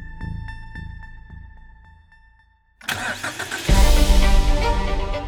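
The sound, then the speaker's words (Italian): A steady, repeating electronic tone fades out, then the engine of a DeLorean DMC-12 car cranks to life and quickly swells into a loud roar as the car speeds off through a parking lot. “L'auto sfreccia per il parcheggio, si ferma, ma non esce nessuno.”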